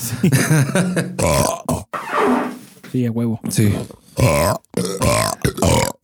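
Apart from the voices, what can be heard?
double burp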